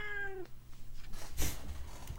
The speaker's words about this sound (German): Miau! so, einmal kurz die Katze entfernt.